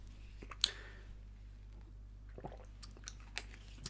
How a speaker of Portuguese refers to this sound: Mas tenho primeiro a dizer que tenho que beber água.